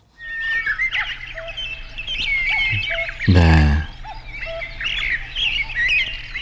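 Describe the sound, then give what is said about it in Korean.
A cuckoo calls in a deep mountain valley amid a dense chorus of chirping, twittering songbirds that carries on steadily throughout, with a brief louder burst partway through. “뻐꾸기가 우니까 다른 새들도 막 같이 우네요.”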